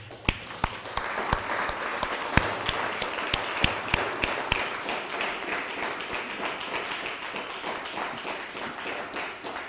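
A group of people applauding, a dense patter of many hands clapping with a few sharper, louder claps standing out early on, sustained steadily for about ten seconds before easing slightly.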